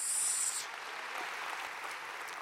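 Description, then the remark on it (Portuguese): A church audience breaks into sustained applause for the Lord, a dense wash of many hands clapping at once, steady and fairly loud throughout, with a brief high-pitched tone at the very start. “Quantos podem aplaudir o Senhor por isso?”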